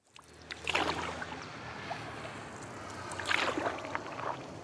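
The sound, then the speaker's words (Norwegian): Two bursts of water splashing and swishing, like paddle strokes, about three seconds apart, as a fisherman paddles down the Magdalena River in Colombia, over a steady low engine-like hum and light outdoor ambience. No one speaks. “En fisker padler nedover Magdalena-elva i Colombia.”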